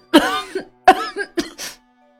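A run of harsh, raspy coughs from an elderly woman in uneven bursts: two strong hacking coughs followed by a couple of weaker, breathier ones, with no talking.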